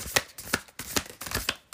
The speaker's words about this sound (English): I love the sound of shuffling cards. Not when I shuffle, when other people shuffle, really.